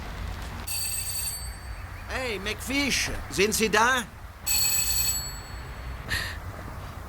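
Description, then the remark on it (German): A bright electronic doorbell at a front door rings in two long bursts with a shorter third, its tones sustained and clear, while a man calls out loudly in between over a low background hum. “Tatsächlich, der klingelt.”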